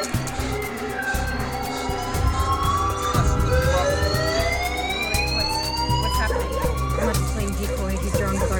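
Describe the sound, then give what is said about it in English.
Several sirens of cars wail together at a hangar, their pitches sweeping upward over a dense low rumble, growing steadily louder as the cars approach, with a faint voice murmuring underneath. “Yeah, listen. There are cars.”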